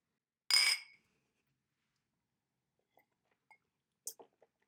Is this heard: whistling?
no